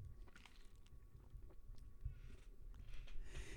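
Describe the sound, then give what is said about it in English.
Quiet sipping of water: soft wet slurps and a swallow or two over a low rumble, with no talking. “Let me take a nice sip of water here.”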